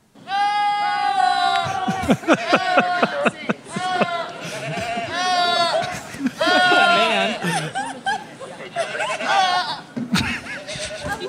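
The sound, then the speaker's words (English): A rapid compilation of goats screaming in shrill, human-like wails and yells, one cry after another with brief gaps, loud, some sounding almost like a person shouting or laughing. “compiled a compilation of goats screaming like people.”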